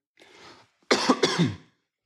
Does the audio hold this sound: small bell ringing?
no